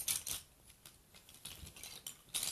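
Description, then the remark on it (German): Quiet clattering of many pens being rummaged through in a desk drawer while searching for a white marker, with irregular clicks and rattles bunched at the start and end and no voices. “Okay, liegen da so viele Stifte, äh, die ich danach wieder einräumen muss.”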